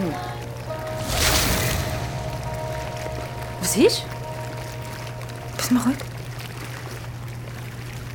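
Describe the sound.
A steady low motor hum runs under constant bubbling, churning water in a hot tub whirlpool, with a brief louder gush of splashing early on. Two short spoken phrases cut in over the whirlpool's drone.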